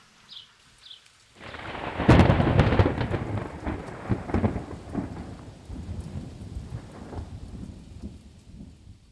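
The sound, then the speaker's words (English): A few faint bird chirps, then a sudden loud crack of thunder that rolls and rumbles away, with steady heavy rain hissing underneath throughout. “And you wonder is a storm coming?”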